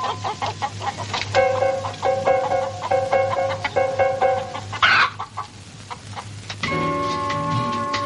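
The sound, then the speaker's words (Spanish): Several chickens cluck in a henhouse as a man carrying a clay bowl enters it, a busy overlapping chorus of short, repeated calls with a steady low hum underneath and a brief rustle midway. “A la vez, el hombre camina por el exterior portando un cuenco de barro en la mano y entra en un gallinero.”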